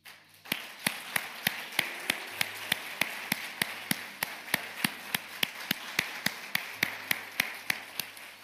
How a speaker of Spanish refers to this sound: ¿Sabe lo que tengo ganas de saltar, de gritar, de darle un aplauso? ¿Me, da, me ayuda en esto a darle un aplauso al Señor?